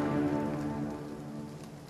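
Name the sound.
heavy rain falling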